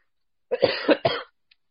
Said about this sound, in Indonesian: Wih, corona, corona. Eh, gue gak ada. Gue batuk karena ngerokok.